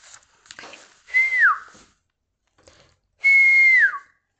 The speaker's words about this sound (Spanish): chifló el camaleón